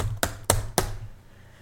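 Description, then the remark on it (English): Three sharp, evenly spaced clicks like keys being struck on a keyboard, fairly distinct, with a low hum underneath and no talking. “And then, and Jack's all like, When you hear me typing,”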